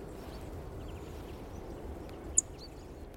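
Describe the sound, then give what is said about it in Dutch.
A song thrush gives a single sharp, high ticking call over a steady rush of wind noise, with a few faint chirps scattered through the background. “Hier een mooie zanglijster.”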